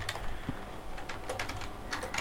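Quick, irregular clicks of typing on a magic keyboard while searching for a music track, fairly quiet, with bursts of several keystrokes over a steady low background hum and no talking.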